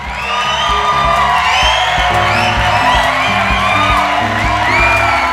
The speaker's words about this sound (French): Nous allons utiliser notre applaudimètre pour mesurer les applaudissements et déterminer le gagnant.